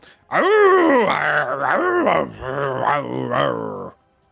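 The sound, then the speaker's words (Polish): A human voice mimics wolves running toward the listeners, letting out drawn-out, wavering, furious howls and rough growling in several swelling bursts, loud, lasting a few seconds with no actual words. “Biegną w waszą stronę, wyją ściekle i warczą.”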